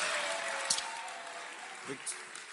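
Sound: audience clapping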